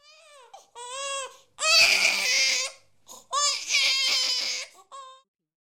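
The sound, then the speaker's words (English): A baby cries in several bursts: short whimpering wails, then two long, loud, strained cries with brief gasping pauses between them, ending in a small whimper. “Indian sees an infant in front of the inn.”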